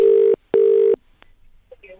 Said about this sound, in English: It's ringing. It's ringing. Let's hope we get an answer. Be optimistic.